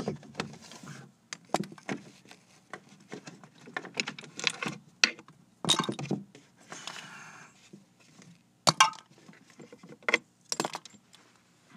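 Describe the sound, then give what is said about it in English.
Markers, pencils and pens clink and rattle as they are gathered up from behind a desk, an irregular series of sharp clicks and clatters with brief pauses in between, and no voices. “markers and pencils back.”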